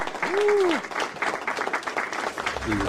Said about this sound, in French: J'envoie les applauses.